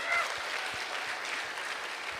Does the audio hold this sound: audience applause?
yes